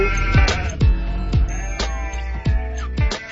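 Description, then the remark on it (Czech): A flock of sheep bleating, several overlapping wavering calls one after another, fairly loud, with no one speaking. “And that's why shepherd says, sheep, let's move to the next better place and have something much better for you in store and say, let's go.”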